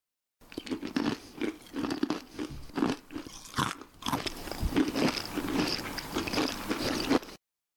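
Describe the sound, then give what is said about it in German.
Dry, brittle crunching of uncooked spaghetti being bitten and chewed, a rapid run of sharp snaps and crackles continuing steadily for several seconds with no talking. “Kennen Sie dieses Geräusch? Klingt doch gut, oder? Genau, wir knabbern ungekochte Spaghetti.”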